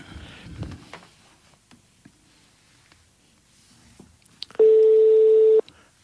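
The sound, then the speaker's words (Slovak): A single ringback tone from a mobile phone call to a number outside the Orange network, a steady buzzy hum lasting about a second, follows several seconds of faint rustling and handling noise. “Ach, jaj, zvoní.”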